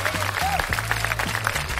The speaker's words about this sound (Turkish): buraya alkış, alkış koyar mısın?